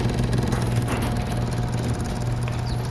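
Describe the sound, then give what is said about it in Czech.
A motorcycle carrying two riders roars into a warehouse, a loud low rumbling drone with a buzzing harmonic tone that holds at an even level throughout, with no voices. “Jakmile motorka se dvěma jezdci přiburácela dovnitř, Kai vrata zase rychle zavřel.”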